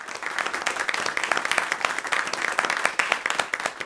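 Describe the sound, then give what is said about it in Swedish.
Steady applause from a group, dense overlapping claps with a bright crackling texture that holds at an even level for several seconds without any voices. “Ja, det blir en applåd.”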